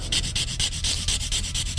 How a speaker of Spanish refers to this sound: Ante la mirada atónita de Dalí, está dando brochazos sobre el lienzo de los elefantes.